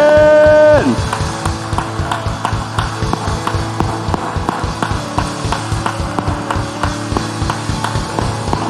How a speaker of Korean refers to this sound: 하나님께 영광과 감사의 박수 올려드립니다 아멘